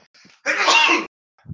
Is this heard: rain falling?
no